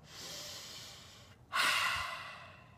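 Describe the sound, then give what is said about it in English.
A slow, deep breath: a long airy inhale, a brief pause, then a louder, rushing exhale that tapers off like a sigh. No talking. “We can act out of our same blueprints of stress and fear and overwhelm, or we can take one or two or ten deep breaths.”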